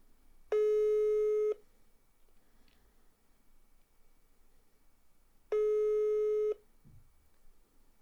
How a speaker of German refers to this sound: Ich werde jetzt nochmal einen Anruf tun. Ruf an. 990, 6 mal die 6.